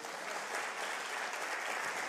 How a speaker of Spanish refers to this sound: ¿Cuántos pueden aplaudir eso?